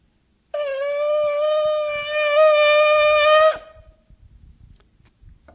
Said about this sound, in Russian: Ну вот так звучит бараний шафар.